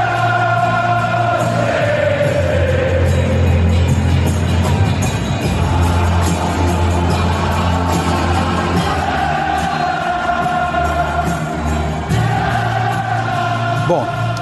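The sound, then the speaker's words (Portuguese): A dense crowd of football fans at the Etihad Stadium in Manchester roars and chants continuously at the start of the match, welcoming the team: a loud wall of massed voices with rising and falling cheers, whistles and shouts layered over a steady low rumble. “Primeiro com sobe som da torcida no início da partida, vai, porque foi legal ter essa volta da torcida recebendo o time.”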